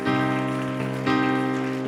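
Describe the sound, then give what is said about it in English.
An audience claps their hands to Jesus in a dense, steady wash of applause, blended with sustained musical tones holding a chord underneath, with no clear talking. “One more time, clap your hands to Jesus.”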